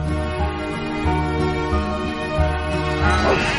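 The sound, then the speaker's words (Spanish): A flock of sheep fleeing in panic while a dog herds them, bleating together, many wavering, overlapping calls forming a dense, continuous chorus at fairly steady loudness, with no talking. “Un rebaño de ovejas huye despavorido.”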